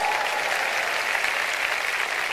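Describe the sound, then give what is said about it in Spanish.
An audience claps together in steady, dense applause, a continuous wash of many hands at an even loudness that holds throughout without any voices standing out. “¿Cuántos le dan un aplauso al Padre?”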